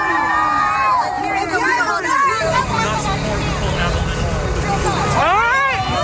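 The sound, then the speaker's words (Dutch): A large crowd boos and jeers the mayor of Minneapolis loudly and continuously after he declines to commit to defunding the Minneapolis Police Department, a dense roar of overlapping voices with rising shouts breaking through, swelling again toward the end. “En dan vervolgens wordt hij dus weggejouwd.”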